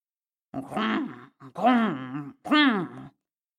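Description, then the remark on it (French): A human voice imitates a brown bear's grunting: three deep, drawn-out growling grunts, fairly loud, with short pauses between them and no other sound. “grogna l'ours brun, qui n'a jamais bien su parler.”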